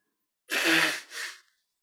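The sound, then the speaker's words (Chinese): Someone blows their nose in two quick bursts, a longer loud honk followed by a shorter, softer one. The sound is breathy and hissing, with no talking. “我好像总觉得不应该在你擤鼻涕的时候说话，打断你的就是 你 的 flow，所以。”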